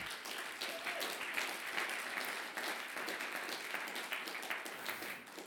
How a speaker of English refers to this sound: Can we just have a bit of a cheer for what God did last year?